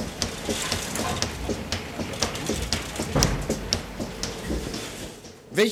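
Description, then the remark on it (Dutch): A milking machine runs steadily, a continuous airy hiss broken by quick, irregular clicking pulses, with a louder thump near the end, as it milks the cow Tietje 212. “Tietje 212 wordt nu gemolken.”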